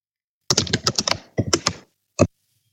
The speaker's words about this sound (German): das nenne ich mal eine laute Tastatur. Das ist klang, als ob jemand die Pyramiden einreißt.